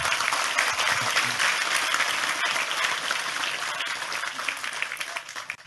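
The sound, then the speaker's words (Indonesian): Loud, sustained applause from an audience fills the whole stretch, a dense wash of clapping hands that stays steady before easing slightly at the end. “Sekali lagi tepuk tangan lebih keras untuk Tejo.”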